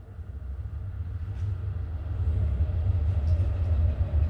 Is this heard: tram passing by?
yes